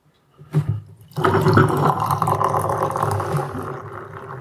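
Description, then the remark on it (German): Society & Solitude Number 4, an imperial IPA brewed with Citra and Galaxy hops, pours steadily into a glass with a gurgling, fizzing rush that starts after a brief splash and stays loud and continuous for several seconds before easing slightly. No one speaks. “Und läuft auf jeden Fall schon sehr, sehr schön ins Glas.”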